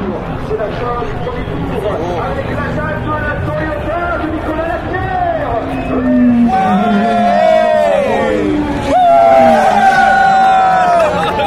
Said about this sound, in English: the cheers for Toyotas as they go past.